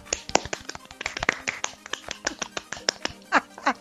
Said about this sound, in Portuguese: Peraí, palmas, palmas, ó.